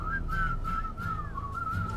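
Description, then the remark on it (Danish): A person whistles a wavering, sliding tune, steady and fairly loud for a couple of seconds over low background rumble. “Hør, hvor jeg kan fløjte.”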